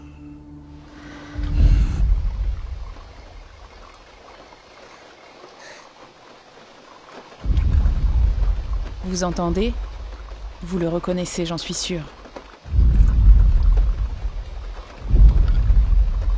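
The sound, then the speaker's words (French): A loud dinosaur from the film Jurassic Park, with creature sounds created by Gary Richtrum, roars twice, harsh and wavering, amid deep rumbling thunder and heavy stormy noise, with a man briefly speaking over it. “Jurassic Park dans le genre film de monstres a été euh, une date.”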